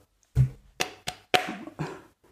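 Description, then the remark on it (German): Five firm knocks on a wooden door, slightly uneven in rhythm, each a dull resonant thud with a short ring; no voices. “kam Rotkapi äh, fröhlich am Haus des Großvaters an und klopfte an die Tür”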